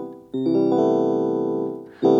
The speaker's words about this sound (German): Das ist ein Jazz-Akkord.